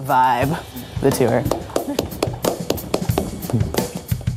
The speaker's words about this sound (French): Ça, c'est moi qui applaudis. C'est exactement mon genre de vibe.